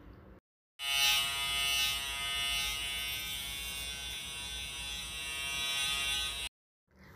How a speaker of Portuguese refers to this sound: Vou fazer aqui a tricotomia em todo o abdômen e colocá-la em decúbito dorsal.